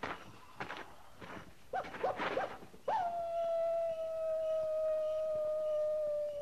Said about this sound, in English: That's just a coyote. Just a coyote.